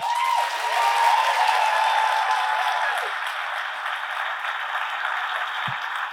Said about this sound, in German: Einmal in die Hände klatschen, wer noch nie Alliteration am Arsch gehört hat.